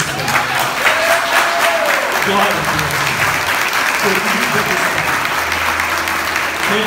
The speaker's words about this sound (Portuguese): Eu amo vocês e feliz Dia dos Pais. Vamos aplaudir.